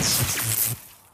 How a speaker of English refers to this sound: This is the sound of a flat screen television hurled off a building